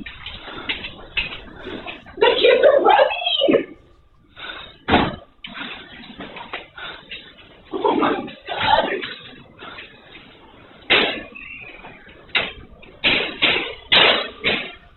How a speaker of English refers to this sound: You're hearing gunshots from the parking lot again.